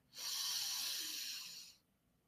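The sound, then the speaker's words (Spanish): A single long, airy breath, drawn slowly and steadily for over a second and a half, soft, taken while simply breathing and becoming aware, then fading into quiet with no talking. “simplemente respirando y tomando conciencia.”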